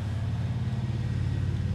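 A passing motorcycle engine rumbles, a steady low drone at constant loudness for the brief moment, with no voices present.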